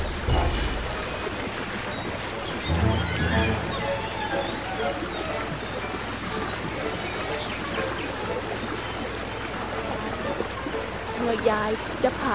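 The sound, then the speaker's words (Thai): A stream, where an old woman is washing clothes on the bank, flows steadily for the whole stretch, a continuous babbling and trickling of water at an even, moderate loudness with a few brief splashy swells. “วันหนึ่ง ขณะที่ยายกำลังซักผ้าอยู่ริมลำธาร”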